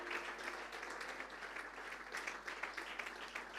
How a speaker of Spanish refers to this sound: ese aplausos de alabanza para el Señor.